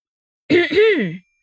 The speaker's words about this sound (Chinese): 就在这时，甘球的身后传来了两声咳嗽。